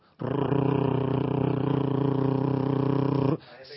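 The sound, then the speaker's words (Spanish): A person's voice imitates a fan motor with a steady, buzzing hum held for about three seconds, loud, then it stops abruptly. “Un aparatito que se pone en el, en el velador, se enchufa y durante la noche, que está todo callado, la selva, tú sabes, en silencio, bueno, los pajaritos, los bichitos sonando de lejos, pero en esa paz ella necesitaba un ruido, hermano, de un motor.”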